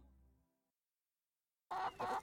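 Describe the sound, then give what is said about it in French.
Two loud, harsh squawks from guinea fowl and turkeys in the farmyard of a property ring out in quick succession, following a faint low hum that fades into a brief silence. “Me voilà donc pointant mon gros nez rouge dans la basse-cour de ma propriété pour aller zigouiller de la pintade et du dindon.”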